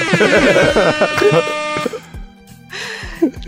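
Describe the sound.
A voice makes a harsh, nasal buzzing noise for nearly two seconds, imitating a buzzer, and then fades into lower, quieter humming tones with a few soft vocal sounds.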